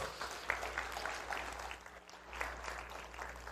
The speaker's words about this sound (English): So, for all the dads here in this room, can we just honor them by giving them just a huge round of applause?